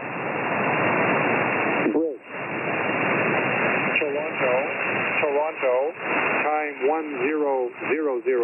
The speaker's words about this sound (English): So you hear all that static and it's very very noisy. it's kind of painful oh, the signal to listen. To. fades in and out